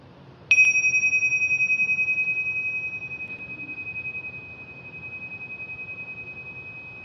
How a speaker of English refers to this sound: Notice what it's like to feel in your being to come into the state of listening. listening to the sound of the gong.